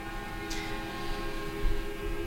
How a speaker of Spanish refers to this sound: llegando justamente para manifestarse frente a la torre ejecutiva, están dando la vuelta a la Plaza Independencia. Sí, las manifestaciones, recordemos, dentro del ómnibus cada, cada chofer y bueno, haciendo sonar sus bocinas como lo están escuchando.